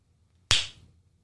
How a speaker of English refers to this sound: That's right. Slap yourself in the face.